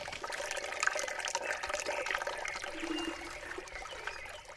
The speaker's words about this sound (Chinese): 就是大家从声音里面应该可以听到，好像是在舀水啦，对。然后我也有听到开瓦斯炉的声音，所以如果我们听声音讲故事的话，就是一个妈妈舀水。